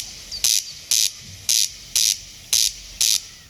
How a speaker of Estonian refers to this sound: ma ei tea, kas teid aitab, aga mul, mul on Rukki Rääku veel alles, kui te tahate teda kuulata.